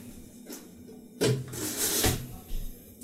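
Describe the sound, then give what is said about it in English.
A window in a hot room is opened: a sharp clunk of the latch, then a loud sliding scrape lasting about a second, followed by a softer knock as it settles. No one speaks. “also really quick before i get into that i'm gonna open the window because it's really hot yeah it's hot i know my, my room ends up really hot every time i do one of these yeah”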